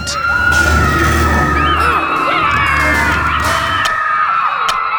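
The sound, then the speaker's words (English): A loud, dense crowd of about 200 children shouting and whooping during a food fight in a camp dining hall, throwing the food from their plates, with shrill overlapping cries and a few sharp bangs scattered through the din. “200 kids picked up the food on their plates and started to throw it.”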